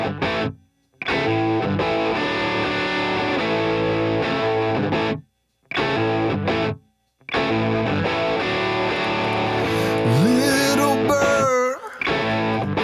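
A loud song with heavily distorted, effects-laden instruments plays up close, cutting out briefly a few times before a swooping, warbling passage near the end.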